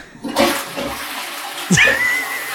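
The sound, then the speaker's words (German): A toilet flushes with a sudden rushing whoosh of water, followed by gurgling and a rising hiss as the tank refills, fairly loud with no voices. “das ein echtes Klo oder war das Sound?”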